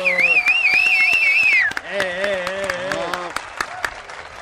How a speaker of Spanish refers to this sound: Un, aplauso.